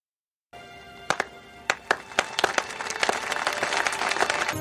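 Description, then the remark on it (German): A slow clap starts with a few isolated, spaced-out hand claps that gradually quicken and multiply, building into fuller applause over a steady crowd murmur. “Kirk rettet heroisch den Präsidenten, seine Leute verhindern das Attentat und alles endet mit einem Slow Clap.”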